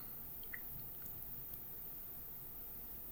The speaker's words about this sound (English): So pouring a beer here.